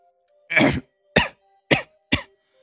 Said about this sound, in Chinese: 烟呛得他一阵咳嗽，一口浓痰泛了上来。